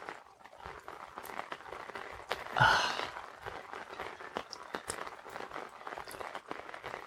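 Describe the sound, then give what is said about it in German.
Dense, irregular pattering of rain drops tapping on an umbrella, steady throughout, with a brief sigh-like voice breaking in partway through. “das hatte ich mal gebaut für uns Regen unterm Schirm mache ich auch noch”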